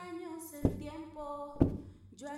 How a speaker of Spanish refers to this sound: los golpes en la puerta del baño, las pisadas, el grito ahogado.